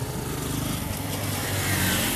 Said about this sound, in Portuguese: Caralho, muitas motos.